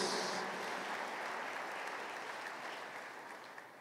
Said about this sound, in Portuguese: Dá um aplauso bem forte ao Senhor, queridos.